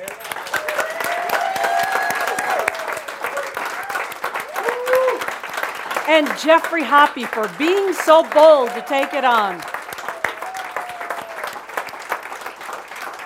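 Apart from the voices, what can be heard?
audience applause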